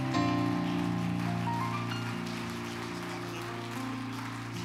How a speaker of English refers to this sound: I want you to put your hands together and welcome one of the finest men I know, our missionary,